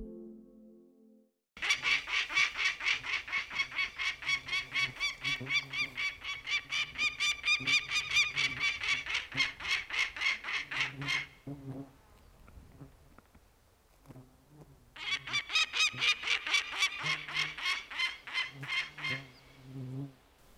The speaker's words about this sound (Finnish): Kalliot raikuvat, kun muuttohaukka huutaa inarilaisella pesäpaikalla.